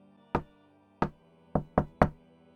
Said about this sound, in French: On frappe à la porte.